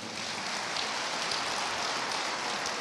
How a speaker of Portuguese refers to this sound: Pode mais uma vez aplaudir a Deus pela vida